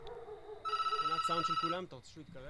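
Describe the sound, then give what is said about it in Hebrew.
A home telephone rings at nine in the evening in 1998, in a single loud, warbling burst of about a second, its rapid trill overlapping a man's speech, which carries on after the ring stops. “הוא לא מצפה כמובן לשום שיחת טלפון.”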